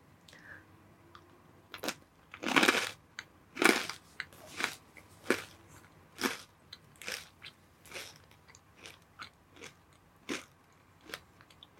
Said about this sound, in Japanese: すごくね、サクサクとした、うん、なんか、食べ心地の、噛み心地のいいお菓子です。はい。あのー、この、泡源の和洋っていうのが最近ハマってるんですけど